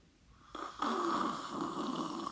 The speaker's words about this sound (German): Ich nehme noch einen Schluck. Achtung.